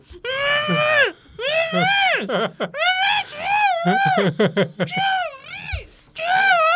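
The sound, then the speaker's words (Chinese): A voice acts out a kidnapping victim's cries: a run of high, wavering wails and whimpering sobs with brief gasping breaks between them, loud and strained throughout, with no normal speech. “学…在那边学他被绑架的声音啊！”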